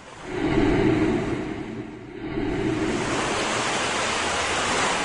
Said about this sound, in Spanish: Recuerden, el viento era muy fuerte.